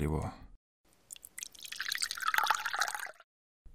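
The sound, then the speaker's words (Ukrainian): A brief voice at the start, then water is poured into a glass for about two seconds, a steady trickling splash that rises in pitch as it fills before stopping. “дайте води мсьє”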